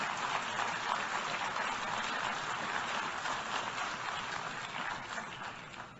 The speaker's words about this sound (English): Wow, sustained applause for the Prime Minister of Israel and the General Assembly.